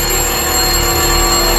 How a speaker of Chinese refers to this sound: 不，电话，电话不会响，它绝对不会响，不会响。它响了起来，电话真的响了起来。